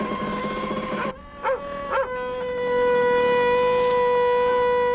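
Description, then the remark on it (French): Pack ice grinds against a ship's hull as small compression ridges rise around the ship, making long, eerie, squealing groans, broken early by a few short cracking pulses, then swelling into a louder sustained moan. No one speaks. “Des petites crêtes de compression s'élèvent autour de Tara. Dans ce même fracas sonore, la banquise nous rappelle sa puissance.”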